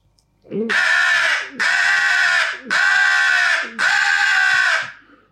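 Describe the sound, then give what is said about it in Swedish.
A voice imitates an aggressive crow with four loud, harsh, drawn-out caws in a steady rhythm, each a raspy, strained blast of nearly a second, forceful. “Hur låter en aggressiv kråka?”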